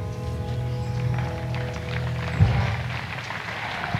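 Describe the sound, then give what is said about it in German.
Applause follows a recited quotation in the Rosengarten (rose garden). A steady wash of clapping fills the whole stretch at an even, moderate level, with a brief sharper burst about halfway through and a faint low hum underneath. “Der Applaus spricht für sich.”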